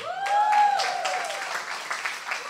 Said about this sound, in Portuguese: Finge que vocês não aplaudiram ainda.